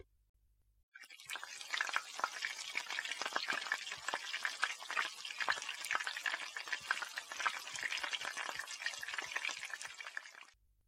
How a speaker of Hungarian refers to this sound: A kunyhó egyik sarkában egy nagy, kopott, fekete üst rotyogott egy kialvás előtt álló, de azért még szépen lobogó tűz fölött.